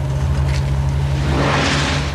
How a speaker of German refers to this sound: Sie fahren in einem dunklen Auto in die Westberliner Nacht.